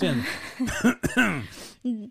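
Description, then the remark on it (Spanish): A person gives a few short coughs, seemingly acted out, mixed with voiced throaty sounds and a brief hum at the end. “o sea, tosiendo”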